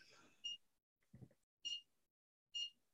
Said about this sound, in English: That beep really comes across really well, just so you know.